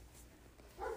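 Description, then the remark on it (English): A pet dog gives a short, muffled bark or two near the end, in the background over a low hum, with no one talking. “I'm sorry, you can hear my dog barking in the background.”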